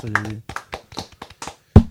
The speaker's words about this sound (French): Euh, effectivement, ça mérite quelques applaudissements.